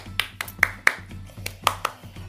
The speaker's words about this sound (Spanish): Grande, Playmotiv. Un aplauso gigante.